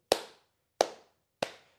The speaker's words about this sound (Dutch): En soms overdag heb ik die gast al gecatcht dat hij in zijn handen klapt. Zo.